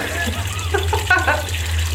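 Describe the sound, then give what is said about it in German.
Water runs steadily into a watering can for two seconds, a continuous rushing pour over a low hum, with a brief murmur of voice in the middle. “Und dann drehe ich mich erstmal um und fülle die Gießkanne.”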